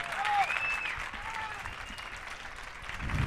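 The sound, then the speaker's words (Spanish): Steady audience applause welcoming a poet presenting his book 'La Policía Celeste', a dense wash of many hands clapping at a fairly even level throughout, with a few brief whistles cutting through early on. “Un aplauso más fuerte, por el amor de Dios.”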